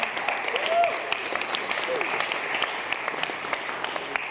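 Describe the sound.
A steady burst of audience applause, dense clapping from many hands sustained at an even level throughout, with a brief voice or whoop rising faintly near the start.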